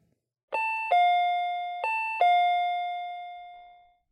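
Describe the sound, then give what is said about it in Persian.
An electronic intercom doorbell at the entrance of an apartment building chimes a two-tone ding-dong twice in quick succession, bright and clear, the final tone ringing out and fading slowly. No voices. “رفت جلو آیفون وایستاد و با یه مکس نسبتا طولانی زنگ زد”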